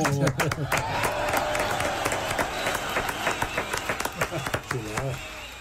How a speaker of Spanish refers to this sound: Qué chulada. Qué aplauso ahí, eh, Así le gustó a la gente.